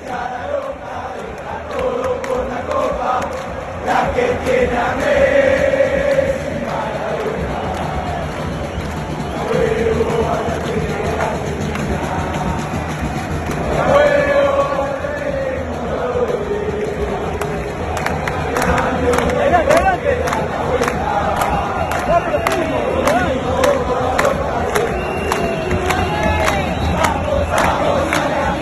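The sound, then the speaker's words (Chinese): A huge crowd of Argentina football fans sings together in the stands, recorded from the middle of the Argentine fans' section, a loud, continuous chant cheering on the national team with swelling melodic lines, scattered shouts and rhythmic claps or drum hits underneath. “哎，咱们听听吧，我真的是录了一段，就是我站在阿根廷球迷的看台中间录了一段，大家听一听。”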